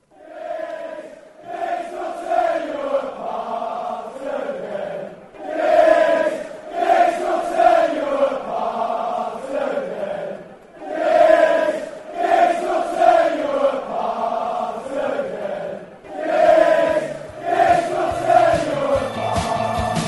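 A large crowd of United football supporters sings a terrace chant in tribute to their idol Ryan Giggs, in unison, loud and steady, repeating the same melodic phrase about four times with brief dips between lines.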